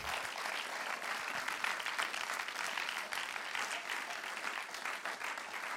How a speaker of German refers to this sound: Und lass uns als Tuner, wir machen das immer wieder, unseren Gästen einen warmen Applaus geben.